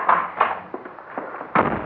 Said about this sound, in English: must you slam the door, darling? I'm sorry, Mommy.